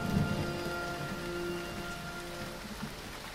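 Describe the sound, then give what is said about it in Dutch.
Heavy rain pours down in a steady, dense hiss, drumming on a surface with no pauses, and a low rumble sits beneath it throughout. “Flink wat regen. Heel veel regen.”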